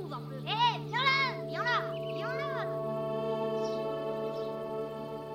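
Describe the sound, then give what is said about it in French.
Muffled children's voices call out from a distance behind a sheet in a few short, rising-and-falling bursts over a steady low hum, then fade, leaving only the hum and faint stray sounds. “Il entend au loin les voix des piques mouches derrière le drap.”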